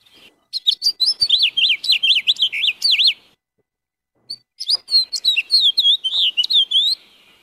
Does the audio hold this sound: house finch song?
yes